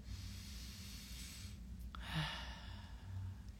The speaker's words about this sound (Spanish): Entonces, por favor, ayúdame con una respiración profunda. Vamos a respirar profundamente.